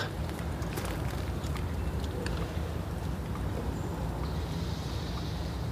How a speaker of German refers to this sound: der Regen wie er auch auf die Metallteile, von der, also Metallgeländer der Balken tropft. Auf den Betonboden, auf den Kiesboden, auf, auf, auf, auf die Holzbank.